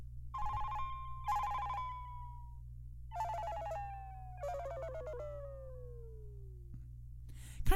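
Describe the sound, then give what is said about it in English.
A phone text message notification tone, chosen instead of the built-in one, plays: four bright, bell-like electronic notes in two pairs, each gliding downward in pitch with a ringing tail, over a steady low hum and no talking. “I just thought this was kind of like like a, like a notification text message comes in”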